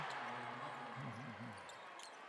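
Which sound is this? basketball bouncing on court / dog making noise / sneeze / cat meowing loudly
basketball bouncing on court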